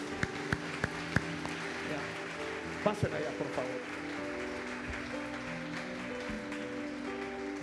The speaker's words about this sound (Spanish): Le das un fuerte aplauso a Dios por estos corazones.